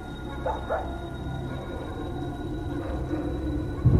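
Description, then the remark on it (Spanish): A female dog barks twice in quick succession late at night, then gives one fainter bark later, all over a steady low rumbling background with no talking. “Pero mi perra no dejaba de ladrar.”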